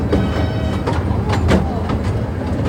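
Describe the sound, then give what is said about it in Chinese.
A train rumbles steadily into a station, a dense low roar with rhythmic clatter of wheels over the rails and faint metallic squeals, loud and continuous throughout. “火车进站。”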